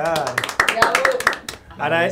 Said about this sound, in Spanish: Un aplauso para ellos también